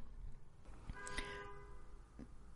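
A car horn honks right outside, one sustained blare lasting under a second, muffled over a low background rumble, with no one talking.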